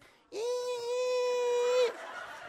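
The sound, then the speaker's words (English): A voice imitates a whale call with one long, steady, tonal wail lasting about a second and a half, loud, then stops abruptly. “I went to see whale in SeaWorld. And the whale cannot speak. They just”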